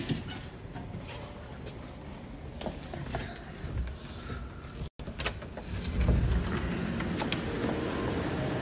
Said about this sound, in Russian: Да и дождь. Идет дождь и гроза очень. Очень такая серьезная. Тропический ливень.